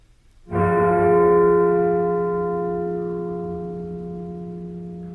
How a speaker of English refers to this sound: The toll of the bell from Dracula's castle means it's time to answer some listener mail.